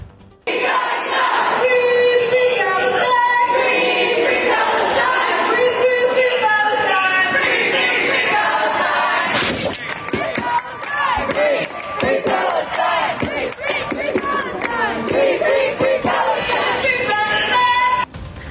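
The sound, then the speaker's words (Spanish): A large, agitated protest crowd at the Capitol shouts and chants continuously, voices overlapping in a dense roar that stays loud throughout, with a brief sharp burst of noise around the middle. “Así se escuchaban las cosas bastante, digamos, con los ánimos bastante caldeados en el Capitolio.”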